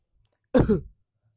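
A single deliberate cough given as a demonstration, fairly loud, with a rough throat-clearing quality and two quick bursts, standing alone in otherwise quiet surroundings.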